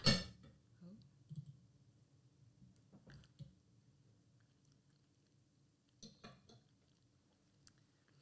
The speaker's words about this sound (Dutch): Dus ik zou zeggen, zo een hapje nemen. Yes, ik ben wel benieuwd nu. Het ruikt goed.